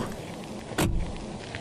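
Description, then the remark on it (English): A single short mechanical clunk of a car door unlatching and swinging open, followed by a brief low rumble against a steady background hum. No one speaks. “The doors look like car doors, open like them too.”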